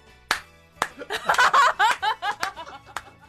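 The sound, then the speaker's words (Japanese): A few sharp, separate hand claps ring out, then a dense flurry of quick pulses blends with giggly, laughter-like voicing before one last clap ends it. The clapping is loud applause at home in front of a 21-inch television, keeping a rhythm. “ていうこういう拍手。”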